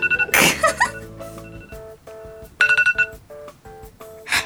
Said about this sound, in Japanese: 私ね、タイマーして喋ってたんですよ、今。あの、時間いない、時間内に喋れないと思ってタイマーしてたら、タイマーなっちゃった。